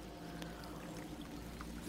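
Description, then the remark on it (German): Water splashes and swirls as a paddle dips repeatedly, paddling a canoe on the Saar river in Saarland, Germany, with a couple of sharper splashes rising out of a steady wash of moving river water; no one speaks. “Und ich finde, was auch viele nicht wissen, hier die Saar, durch die wir gerade durchpaddeln, ist gar nicht der längste Fluss, sondern das ist die Blies.”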